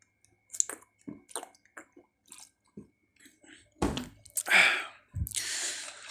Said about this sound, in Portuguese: Deixa eu tomar uma aguinha aqui rapidinho que eu fiquei sem, sem garganta seca. Sei lá, peraí, deixa eu beber água.